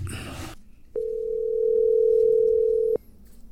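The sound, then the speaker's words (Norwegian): A telephone ringback tone sounds while a call is being placed: one steady electronic tone lasting about two seconds, clear and close, following a brief burst of noise, with no talking. “Men du, skal vi ringe”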